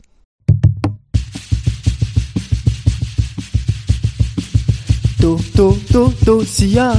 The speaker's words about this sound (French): une chanson de la Réunion, interprétée donc en créole réunionnais, accompagnée du kayam, Kayom, je ne sais pas comment on dit, un instrument originaire du Mozambique introduit à la Réunion par les esclaves du Mozambique.